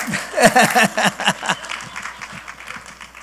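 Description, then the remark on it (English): An audience breaks into a burst of applause, a dense patter of many hands that is loudest early on and then gradually thins and fades over a few seconds. “You could applaud.”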